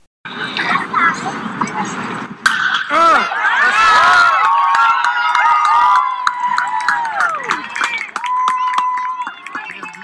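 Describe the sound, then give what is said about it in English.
A big crowd at T-Mobile Park, a major league ballpark, erupts into loud, sustained cheering after a sharp crack early on as a batter hits a pitch to the opposite field for a single, with scattered shouts and whistles swelling and lingering for several seconds. “that was the sound of one Cade Huffman taking a pitch to the opposite field for a nice little single at T-Mobile Park”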